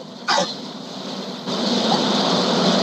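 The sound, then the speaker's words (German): A truck's side curtain being pulled shut at Krombach while the truck is being loaded: a sharp rustling swish near the start, then a steady sliding, rolling scrape that grows louder partway through, set against a constant background rumble. “Ich habe gerade den Vorhang zugemacht. Ich bin bei Krombach und die wird gerade beladen.”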